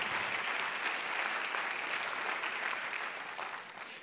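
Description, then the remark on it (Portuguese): A church audience applauds for Jesus during a service, a dense wash of many hands clapping at once that holds strong throughout and eases slightly near the end, with no voices heard. “Se é para Jesus, você pode aplaudir, sem medo.”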